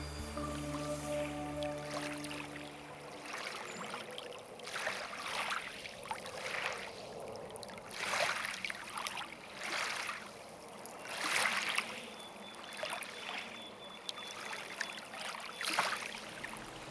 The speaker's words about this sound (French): Pour cette dernière pièce, j'ai été enregistrer l'ambiance sur le bord du fleuve.